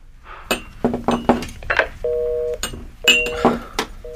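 Clicks and clatter of a phone being handled, followed by a few steady beeping keypad tones as a number is dialed; no one speaks.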